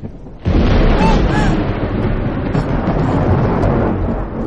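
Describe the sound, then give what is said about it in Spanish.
A sudden, loud thunder clap during a lightning storm, as a lightning flash lights up the room, bursts in after a brief quiet moment, then rolls on as a dense, sustained rumble for several seconds. “Se levanta asustada. Un relámpago ilumina la sala.”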